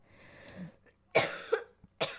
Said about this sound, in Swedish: Jag hostar fortfarande. Mm. Eh, börjar bli lite bättre dock.